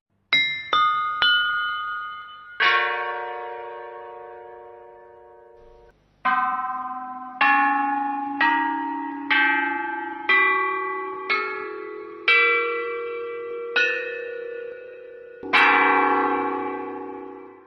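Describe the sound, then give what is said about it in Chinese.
The Marquis Yi of Zeng bronze chime bells (bianzhong), an instrument from China's Warring States period, play a slow melody of about a dozen struck notes, each a bright metallic clang with a long shimmering ring that fades, the pitches stepping gradually upward. No voices. “这个带有金属质感的声音呢，其实是来自战国时期的乐器，叫做曾侯乙编钟。”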